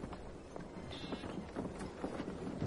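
Horse hooves clip-clop at a steady walking pace as a horse carrying Brom's corpse is led by the reins, a series of hollow knocks repeating over a continuous background of street noise and faint murmur.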